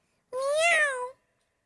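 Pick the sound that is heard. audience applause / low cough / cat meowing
cat meowing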